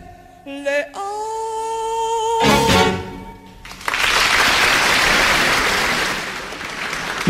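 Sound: applause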